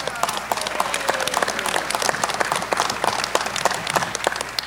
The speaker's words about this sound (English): Let's, we can still give applause.